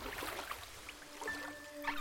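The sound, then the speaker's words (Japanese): Oars dip and splash softly through water as a small boat is rowed out onto a dark sea at night under a starry sky, unhurried, with faint sustained tones humming in the background and no voices. “人はボートに乗り込み再びリコが糸を手に持ち高谷がオールをこぎ出しました”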